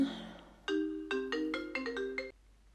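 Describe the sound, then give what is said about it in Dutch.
A mobile phone rings in a home study during a recording. The ringtone plays a short melodic run of bright electronic tones, loud, for under two seconds before cutting off. “Ik zit deze podcast op te nemen in mijn werkkamer thuis en ik word gebeld.”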